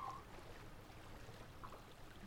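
A steady, soft wash of flowing water, like a small stream babbling continuously at a low, even level with no voices.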